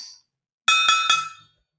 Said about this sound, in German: Klingt nach Topfdeckel.